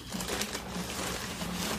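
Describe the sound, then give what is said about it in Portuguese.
An item is set into a shopping bag, with a steady crinkly rustle of the bag's material lasting the whole moment, fairly soft and even, with no voices. “Vou colocar aqui na sua sacola, tá?”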